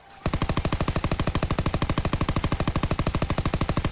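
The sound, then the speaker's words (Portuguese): Sustained machine gun fire, a loud, rapid and perfectly even stream of shots aimed at people, who fall. It starts abruptly after a brief quiet moment and continues without a break, harsh. “Tu vê o pessoal tomando tiro, meio que desesperado, caindo.”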